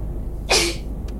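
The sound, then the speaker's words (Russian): A single sharp sneeze bursts out, a quick explosive burst that fades within a fraction of a second, with no talking around it. “Будь здоров.”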